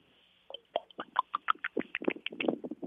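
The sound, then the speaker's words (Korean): A voice imitates water being poured, making a quick run of wet, glugging mouth pops that start after a brief silence and grow denser and faster, clear. “저 물 따르는 소리 한번 해봐도 물따, 될까요?”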